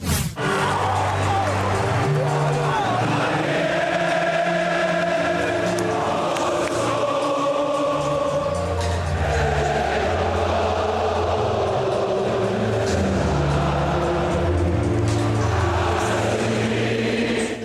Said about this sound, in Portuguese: E canta o estádio inteiro.